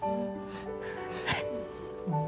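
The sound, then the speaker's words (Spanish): A woman cries, her voice breaking into wavering whimpers with a couple of sharp, breathy sobbing gasps in between; no words are spoken. “¿Por qué? ¿Por qué lloras”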